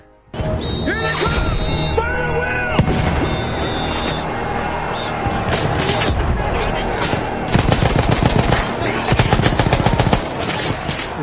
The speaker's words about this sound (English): There's a lot of explosions. Like explosions are not the cool trick to make you think that it's it's much bigger.